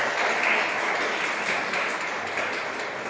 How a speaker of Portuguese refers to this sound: Deus é grande. Dê uma salva de palmas para Jesus, irmãos. Aleluia.